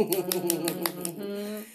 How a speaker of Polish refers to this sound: Więc teraz niech cały internet usłyszy. Dla ciebie oklaski, moja droga, moja droga koleżanko,